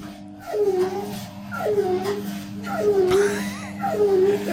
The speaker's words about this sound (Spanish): Pues es que la vecina yo creo que no le ha dado mantenimiento a su lavadora porque así suena a continuación.